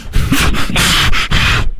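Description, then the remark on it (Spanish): A voice imitates heavy breathing into a phone: several loud, harsh breathy rushes in quick succession, airy and noisy with a rough, rubbing texture and brief gaps between breaths. “Ella es de las que ah, respira en el teléfono. Así.”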